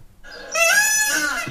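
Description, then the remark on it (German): A single loud, piercing peacock call rings out, a drawn-out nasal wail that swells quickly and holds for about a second before cutting off. No one speaks. “DER PFAU”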